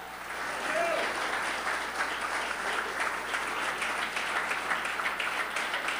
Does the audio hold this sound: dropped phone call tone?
no